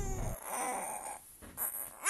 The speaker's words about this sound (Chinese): 就在这个时候，坐在娃娃车里面的…哭了。来，我们来听一下他的哭声，